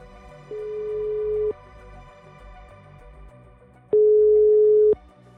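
Two long ringback tones of an outgoing phone call to a police lawyer in the Sør-Øst police district, each a steady beep lasting about a second, separated by a pause of a couple of seconds over a low background hum.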